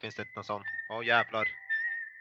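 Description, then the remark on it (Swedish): A high, steady electronic tone from a mobile phone rings out alongside people talking, then continues alone for a moment, like a notification or ringtone chiming. “Det var min telefon.”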